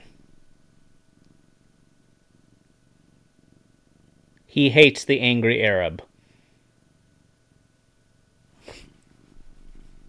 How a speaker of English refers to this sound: And this, this is my cat.